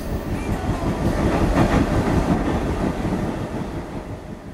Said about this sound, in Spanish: Se va el subte.